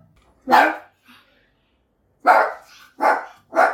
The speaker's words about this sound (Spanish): Es que está escuchando a la gente afuera. Mirá, Nala, mamá. Sí, voy a ir a ladrar a la puerta